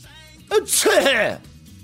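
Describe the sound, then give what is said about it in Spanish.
A single sneeze, muffled into a shirt, bursts out with a sharp intake and a voiced, drawn-out release. It's fairly loud, alone over a faint low background hum. “mi estornudo siempre es adentro de mi camisa, sí.”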